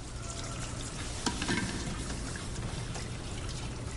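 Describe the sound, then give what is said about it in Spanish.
Running water pours steadily as a prisoner rinses food trays at a sink, a continuous hiss with a brief clink of crockery partway through; no one speaks. “Enjuaga con agua.”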